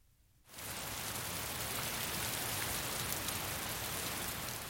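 After a brief quiet moment, steady rain sets in, a dense, even hiss of drops pattering on a surface that continues unbroken, with no voices.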